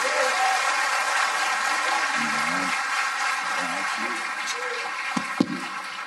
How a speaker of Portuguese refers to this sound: Você podia aplaudir de verdade, com toda a força.